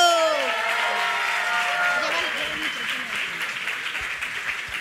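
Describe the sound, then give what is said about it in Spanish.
An audience breaks into steady applause, a dense wash of many hands clapping that sustains throughout, with a voice briefly audible at the start beneath the clapping. “Ok, muchas gracias, un aplauso.”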